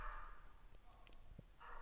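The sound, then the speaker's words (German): A dog sniffs and snuffles in breathy bursts at the start and end, with soft scattered taps and shuffles of paws moving in between; fairly quiet, no talking. “Ja, Verzeihung wegen dem Hund.”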